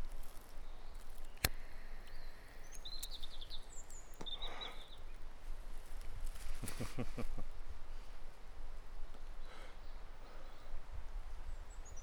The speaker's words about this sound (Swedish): Det skulle kunna funka som ASMR för mig. Det här extremt diskreta knastret när ja. man inhalerar en cigarett. Det var också det första jag tänkte på. Man suger riktigt ordentligt på den och så knastrar det så gött.